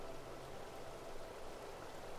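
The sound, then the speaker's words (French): Spring water gushes from its source, splashes steadily over rock and runs on into a small stream, a continuous bubbling rush with no voices present. “Vous pouvez entendre sa douce mélodie, l'eau jaillir de la source et rebondir sur la roche avant de couler sagement dans un ruisseau.”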